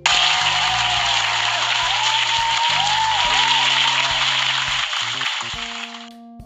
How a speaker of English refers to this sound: Round of applause for you for that